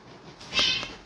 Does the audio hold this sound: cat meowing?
yes